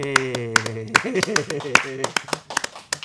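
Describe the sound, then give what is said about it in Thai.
A burst of hand clapping celebrating 50 episodes of the Echo Factor programme on the Echo channel, a dozen or more sharp claps at an uneven, brisk pace, with voices talking and exclaiming over the first half before the claps continue alone. “รายการ Echo Factor ทางช่อง Echo เนี่ยอยู่กันมาครบ 50 ตอนแล้วนะครับยังเป็นทางการอาจารย์ครับปรบมือดีครับรออะไร”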